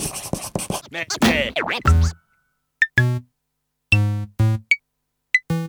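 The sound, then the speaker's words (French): A short jingle: a burst of scratchy, swirling sound effects gives way to a few bouncy, buzzy synth notes with bright pings, loud, with no talking. “Et eh ben, je crois qu'on va être parti sur la LBD. Jingle.”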